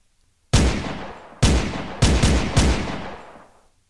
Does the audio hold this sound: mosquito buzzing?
no